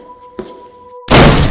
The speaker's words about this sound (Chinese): 就在我正前方，很大的“砰”的一声，就好像有人在眼前大力跳起来，然后踹着地板的那一种声音。